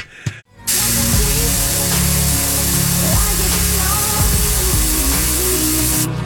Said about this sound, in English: I'm still in the shower.